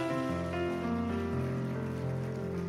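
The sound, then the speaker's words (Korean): A church audience claps steadily, giving applause of glory to God, a dense wash of applause blended with sustained organ or keyboard chords that hold and shift underneath. No one speaks. “하나님께 영광의 박수 올려드립니다.”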